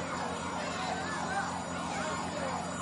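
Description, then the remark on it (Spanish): An alarm, set off by a man pressing a button, wails continuously, its tone sweeping up and down in steady cycles over a dense background hum, loud for the whole stretch. “Yo iré a saltar la alarma.”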